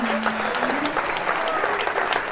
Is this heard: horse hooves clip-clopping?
no